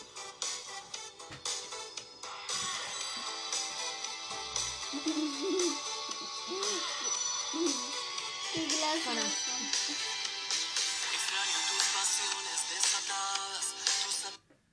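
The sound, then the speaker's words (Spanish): A recorded song plays steadily, full and fairly loud, with a sung melody over dense instrumentation, then cuts off abruptly at the end. “Bueno, esto, esta es la canción que yo.”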